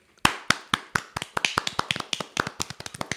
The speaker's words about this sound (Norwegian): Skal vi klappe for oss selv, da? Vi klapper.